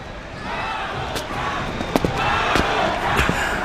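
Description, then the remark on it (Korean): A large baseball stadium crowd roars steadily in a broad, dense wash of noise, cheering overwhelmingly as a power hitter comes up to bat, with a few sharp claps or thumps cutting through near the middle and end. “강타자 마동타 압도적 응원을 받으며 출전합니다”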